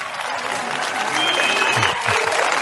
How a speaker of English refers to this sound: Thunderous applause. Thunderous applause. Yay.